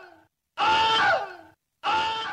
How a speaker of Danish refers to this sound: Jeg trykker på den. Det er Vilhelms skrig.